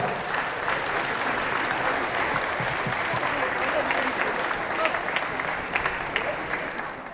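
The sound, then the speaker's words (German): Steady audience applause for the gold medal winners of the company sports European Championship in darts fills the whole stretch, a dense wash of many hands clapping at an even, sustained level with a few sharper claps standing out, and no talking over it. “Herzlichen Glückwunsch, euer Applaus”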